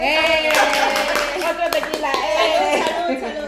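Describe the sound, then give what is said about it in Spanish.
A burst of hand clapping from a small group keeps going for a few seconds, mixed with excited shouts and laughter from people talking over it, all fairly loud. “Eh, Otro aplauso.”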